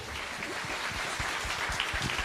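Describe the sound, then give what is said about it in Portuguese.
An audience applauding in praise of the Lord: a steady, dense wash of many hands clapping at once, sustained at an even level throughout, with no voices standing out above it. “Aplauda o Senhor.”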